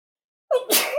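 A single sharp sneeze bursts out after a moment of silence, starting with a quick voiced intake and ending in a loud, breathy blast.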